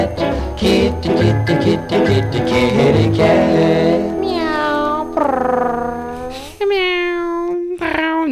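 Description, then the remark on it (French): After a busy, loud stretch of voices and music, people imitate a cat with three long, wavering, drawn-out meows in a row, each rising and falling in pitch, loud. “c'est faire le chat. Comment vous faites le chat, vous c'est un peu le chat rock.”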